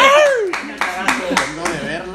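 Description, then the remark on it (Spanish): A handful of sharp claps land at a steady, spaced beat while voices laugh loudly over them, the clapping partly buried under the laughter. “Un aplauso porque no se bañó.”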